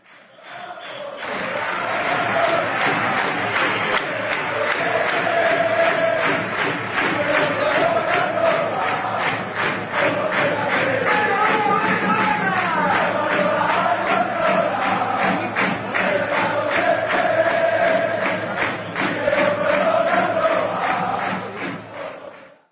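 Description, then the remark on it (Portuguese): Real Madrid football fans chant a song about Guardiola in unison, many voices repeating the same sing-song melodic phrase over a steady, loud roar with a rhythmic pulse running throughout. “Vamos ouvir essa, essa canção bonita do Real Madrid em, homenageando Guardiola.”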